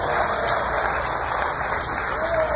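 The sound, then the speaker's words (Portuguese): A crowd claps together in a steady, dense burst of applause that fills the room and holds at an even level throughout, with no voices rising above it. “Ah, uma assalto de palmas aqui, irmãos.”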